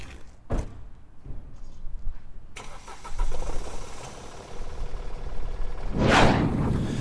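A car door thuds, then an engine cranks and catches, settling into a steady idle before revving louder as the car pulls away to drive to a workshop, with no talking.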